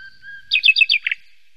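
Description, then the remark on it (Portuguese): A short burst of bright bird chirps in the Jardim Tropical garden in Belém, Portugal: four quick rising notes then a lower double twitter, clear, over a faint steady background tone with no voices. “E há aves que só existem neste país.”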